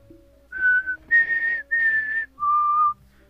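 A person whistles a short tune of four clear, sustained notes, rising then dropping in pitch at the end, fairly loud with no talking.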